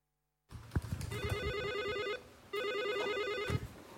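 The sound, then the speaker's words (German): A telephone rings for incoming donation calls with two electronic trilling bursts, each lasting over a second with a short pause between, loud with some low background clatter. “Wir hören mal rein, wie sich diese Spendenanrufe so angehört haben.”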